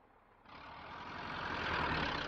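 A truck engine rumbles low and steady, then a loud air-brake hiss bursts in and swells, sustained for the rest of the moment, with no voices.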